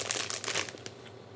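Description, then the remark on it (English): Crinkling packaging of a frog-shaped gummy candy being opened: a quick burst of dense, crackly plastic rustling that fades out over about a second, with no talking. “What's funny is the packaging would have you believe that it's like a cartoon frog on the inside, but this is a this is a realistic mold of a frog.”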